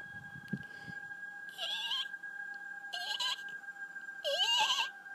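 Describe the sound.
A voice imitates a very soft, eerie laugh in three short, breathy bursts with rising squeaky tones, spaced about a second apart, over a faint steady background hum.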